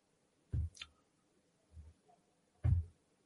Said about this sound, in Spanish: Si nos metemos en el Instituto de la Juventud, vais a encontrar varias cosas el logotipo de la agenda, le damos al clic.